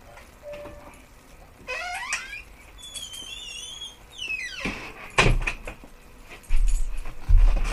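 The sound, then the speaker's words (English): A door squeaks open with drawn-out creaks, then clunks and thuds as it's handled and pushed shut while a dog is let in, with low bumps and shuffling at the end. “I had to let my dog in”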